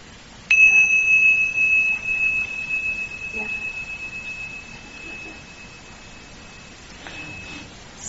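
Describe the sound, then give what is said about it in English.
A single bell strike rings out clearly, its bright, pure tone sustaining and slowly fading over several seconds against a quiet background. The bell is rung to signal a pause and a switch of speakers in a paired speaking-and-listening exercise. “And then we begin when I ring the bell, and then when I ring the bell again, then just pause, and then just we'll switch.”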